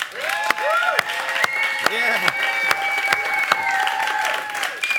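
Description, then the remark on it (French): A crowd applauds steadily and densely for about five seconds, with sharp individual claps standing out and whoops and whistled cheers rising above the clapping. “Donc, faites beaucoup de bruit pour Nicolas Ouellette.”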